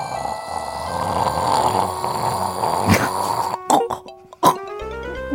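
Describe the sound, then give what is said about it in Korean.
A father snores heavily while asleep in the living room over a steady hum, with rough rasping breaths, followed by a few sharp snorts and gasps near the end, fairly loud. “아빠는 왜 거실에서 잘까?”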